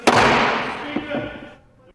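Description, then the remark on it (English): In the US House of Representatives, a single sharp gavel strike cracks out at the start as the chair declares a recess until noon, followed by a long ringing decay that fades over about a second and a half, with faint murmuring voices underneath. “And the House was then gavelled into recess.”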